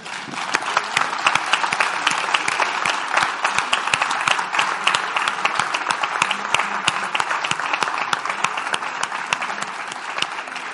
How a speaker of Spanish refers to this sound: Y voy a hacer una cosa que es muy de este tipo de eventos, que es pedir un aplauso para ellos, por favor.